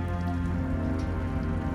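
Steady rain falls on a surface, a dense, continuous patter of drops at an even level throughout, with no voices.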